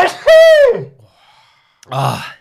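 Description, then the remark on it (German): A single loud sneeze: a drawn-out, voiced, rising-then-falling intake, a brief pause, then a sharp, noisy burst. “Ah, okay, aber jetzt muss ich niesen.”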